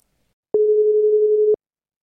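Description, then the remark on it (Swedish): A single steady phone ringing tone from an outgoing call to a man living in Thailand, one clean one-second beep at medium loudness, heard alone with silence before and after. “Ja, men vi ringer upp han direkt.”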